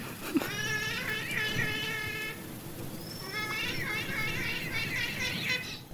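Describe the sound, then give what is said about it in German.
Giant otters in front of a terrace squabbling over a sea bream (dorade) one has caught: two long bouts of shrill, wavering wails and squeals, loud and strained, with a brief pause between them and a low rumble of background noise throughout. “Ich weiß nicht, ob man das gerade im Hintergrund hört, aber der eine Riesenotter vor der Terrasse hat gerade eine Dorade gefangen und will nichts abgeben. Und der andere ist eingeschnappt.”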